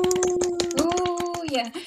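Irregular, rapid clapping from a few hands fills the moment, with a steady sustained tone held over it that dips in pitch just before the clapping stops.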